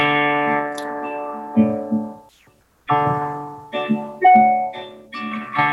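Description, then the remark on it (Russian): A short rock song written as an intro to open a large concert at Spartak Arena, played on heavily distorted electric guitar: long, ringing chords that fade into a brief pause, then resume with shorter, punchier chord changes. No voices are heard. “И написал эту маленькую песенку, а в альбоме она, наоборот, стоит в самом конце.”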